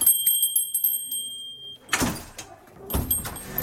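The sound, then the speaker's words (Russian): A small door bell rings with a bright, sustained chime that slowly fades as a visitor enters a school, then the door bumps and rattles open in two loud knocks and shuffles. “О том, что в школу «Колокол» пожаловал посетитель, возвещает колокольчик.”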